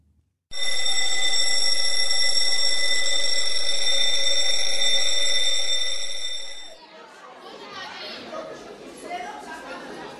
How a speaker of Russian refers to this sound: Звенит звонок.